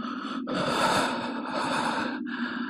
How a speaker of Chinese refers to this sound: 就在我思考的时候，我听到类似喘气的声音，听上去很像，但其实并不是。